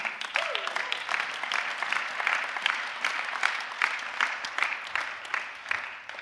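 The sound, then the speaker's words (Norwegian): An audience claps steadily for several seconds for a speaker being introduced, a dense, sustained burst of applause that holds its level before easing slightly toward the end. “Gi en klapp”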